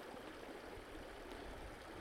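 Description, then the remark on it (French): A steady, continuous rush of flowing water from a waterfall in a mountain cirque, soft and even throughout with no voices. “Il y a des névés, des lacs, des cascades.”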